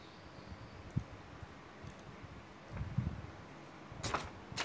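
A handful of quick, light clicks scattered over a few seconds as buttons on a notebook computer are pressed by mistake, with a tight cluster of sharper clicks near the end.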